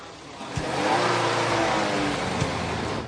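A car engine roars loudly and steadily, revving as the car pulls away, with a couple of brief thumps from a man punching a van with his fist cutting through the rumble, and no voices.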